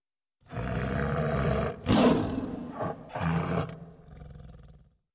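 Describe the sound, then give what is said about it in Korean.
A white tiger, transformed from a sword in a tale, roars loudly in several deep, rumbling bursts over about four seconds, the calls swelling and breaking with short pauses before fading out. No one speaks. “운치가 매우 화를 내고 차고 있던 칼을 빼 위협하려고 하였는데 그 칼이 변하여 흰 호랑이가 되어 도려 운치를 해치려 하였다.”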